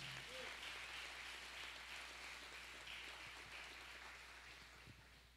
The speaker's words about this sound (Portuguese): Dê um aplauso a Jesus só para me beber uma água.